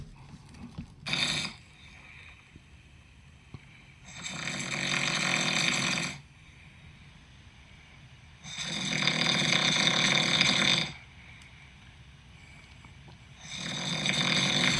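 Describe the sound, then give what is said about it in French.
Loud, raspy snoring from a man asleep next to the recordist at 2 a.m., repeating in long, broad rumbling breaths every few seconds, with quiet pauses in between. The snores sound harsh, with no talking. “Fait que ça, c'est lui qui ronfle à côté de moi.”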